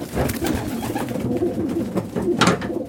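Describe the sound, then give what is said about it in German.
Several pigeons coo in low, throaty, overlapping murmurs, fairly loud, with a steady rumbling rhythm and faint background noise. “Tauben finden wir in der Stadt vor allem lästig.”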